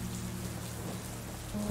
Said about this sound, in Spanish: Empieza a llover.